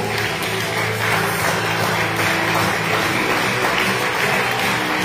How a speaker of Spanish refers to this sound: Dale un fuerte aplauso al Señor en esta mañana.